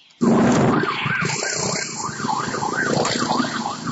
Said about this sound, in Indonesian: Sirine ambulans kini tak sekencang saat varian Delta melanda Indonesia yang menyebabkan peningkatan kasus COVID-19 di tanah air.